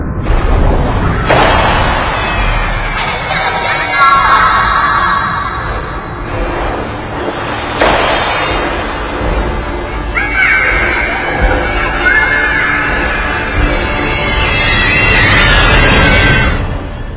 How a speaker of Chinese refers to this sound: 海豚听觉的敏锐程度远远超过人类，我们的每一次欢呼对海豚都是一种伤害，使它们抑郁、生病，甚至自杀。